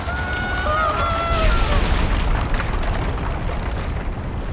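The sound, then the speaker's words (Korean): The great temple of Dagon collapsing as Samson brings down two stone pillars: a loud, continuous roaring rumble, heavy in the low end, lasting throughout, with faint wavering cries early on that soon vanish into the din. “삼손의 놀라운 힘으로 두 기둥이 무너지니 다곤의 커다란 신전이 무너지기 시작하였습니다.”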